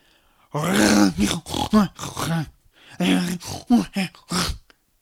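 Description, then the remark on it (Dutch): A voice imitates the loud, exaggerated snoring of the story character Dingo, who is very tired: two long, rasping runs of grunting, groaning snorts, each broken into several pulses, forceful with a brief pause between them. “En omdat Dingo inmiddels zo moe was, ging hij nog veel harder snurken.”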